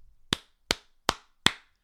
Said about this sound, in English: I'm going to do it. I'm going to clap it up for the front office. You won't hear me do that often.